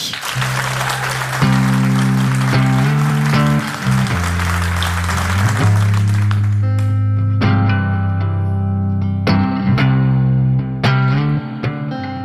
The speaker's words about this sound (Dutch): Dames en heren, geef ze een fantastisch applaus.